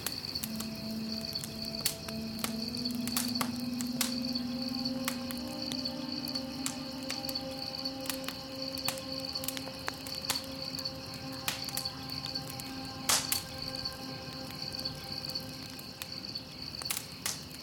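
Rainforest ambience in India filled with a steady, high-pitched insect chirring, scattered sharp clicks and ticks, and a low droning hum underneath, with no voices.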